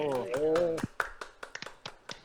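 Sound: round of applause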